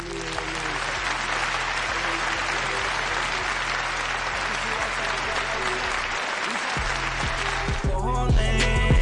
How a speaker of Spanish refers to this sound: Un fuerte aplauso para la dueña